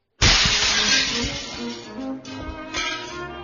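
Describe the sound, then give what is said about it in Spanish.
Window glass shatters from the boom of a cannon with a sudden loud crash, then shards keep tinkling and clattering for a few seconds as the breaking slowly dies down. No voices. “El sonido del cañón, su estampido, destruye los vidrios de una ventana.”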